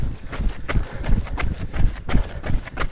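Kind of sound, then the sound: human body sound, heavy breathing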